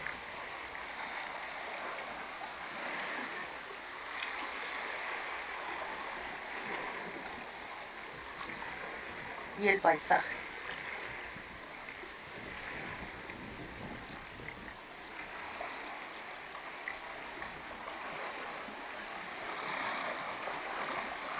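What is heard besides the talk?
sea water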